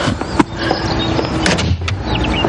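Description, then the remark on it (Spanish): A door shuts with a short, solid thud as a waitress leaves, followed by a few softer knocks and rattles against steady background noise. No one speaks. “Dentro de la bañera, la joven suspira aliviada al escuchar la puerta.”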